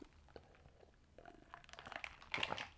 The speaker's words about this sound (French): Je vais prendre une petite pause, gorgée de café.